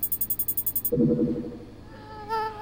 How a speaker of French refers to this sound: Rapprochons-nous un peu plus. Foutu maringouin! Je pense que je l'ai eu.